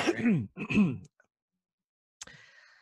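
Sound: throat clearing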